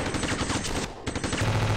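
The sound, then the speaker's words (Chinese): Loud, dense bursts of rapid automatic gunfire at night, shooting through a wooden door and splintering it, shots overlapping into a continuous crackle, a brief lull near the middle, then more firing. No voices are heard. “一时间，枪声大作，火光爆闪，爆碎的木片中，门板被打得支离破碎，顷刻间成了马蜂窝。”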